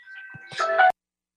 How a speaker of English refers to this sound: That's Mitch and Donna's bird, I think, probably. They have a bird, and he's very loud.